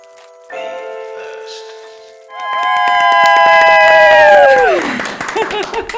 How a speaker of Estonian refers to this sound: pange käed kokku, tehke kõvasti lärmi.